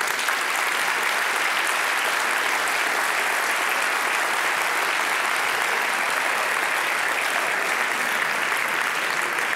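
A large audience claps steadily and loudly for the whole stretch, a dense, even wash of many hands with no pauses and no voices rising above it.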